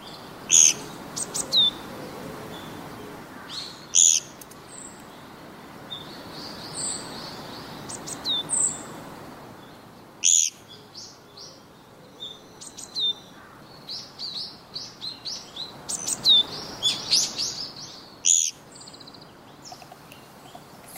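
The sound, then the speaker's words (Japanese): Japanese pygmy woodpecker calls: brief, high, rasping squeaks repeated at irregular intervals over a steady outdoor hiss, with other small bird chirps scattered through and no talking. “地味なルックスのコゲラはこれら目立つ鳥の中に紛れてしまいがちですがギーッというこの声とコツコツと木をつつく音でその存在に気づくことができます。”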